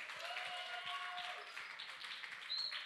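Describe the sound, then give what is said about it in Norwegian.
An audience at a church applauds the meeting leader steadily for a few seconds, a dense wash of many hands clapping at an even loudness, with a thin whistle-like tone briefly rising above it. “Du kan hun få en applaus, hun òg?”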